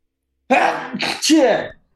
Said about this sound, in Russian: Прости, я чихнул.